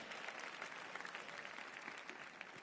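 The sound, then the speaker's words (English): Steady applause from an audience fills the whole stretch, a dense patter of many hands clapping at once with no pauses and no voices standing out. “Would you give Grand Grand a big hand?”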